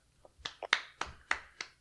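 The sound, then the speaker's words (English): A few people clap sparsely during an announced countdown of team rankings, about seven sharp, crisp claps at a quick, fairly steady pace with no voices over them. “Okay, please hold your applause to the end.”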